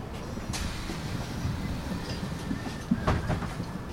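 Steady low engine rumble fills the cabin of a moving city bus, with a few rattles and clunks over the drone and a brief louder knock near the end; no one speaks.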